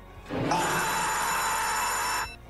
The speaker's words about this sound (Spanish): En esta ocasión, para detenerlos, van a escuchar la que en esta ocasión va a ser la campana gritona.